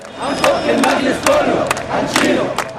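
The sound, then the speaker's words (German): A large protest crowd at Tahrir Square in Cairo chants in loud, rhythmic unison during demonstrations against Hosni Mubarak, voices rising in repeated surges with sharp accented shouts roughly every beat, the dense roar never dropping out. “Januar 2011 gilt er als Symbol für die Demonstrationen gegen Diktator Hosni Mubarak. Der Tahrir-Platz in Kairo.”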